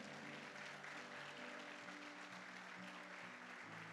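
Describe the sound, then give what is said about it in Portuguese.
A church audience applauds the Lord loudly and steadily during a sermon, a dense wash of clapping from many hands, with a sustained musical tone humming underneath throughout. “Vamos aplaudir bem forte ao Senhor.”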